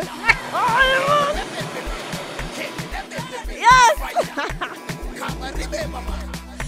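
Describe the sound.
Water splashes and sloshes in a busy, steady wash of noise, with a few louder bursts, while voices call out briefly over it.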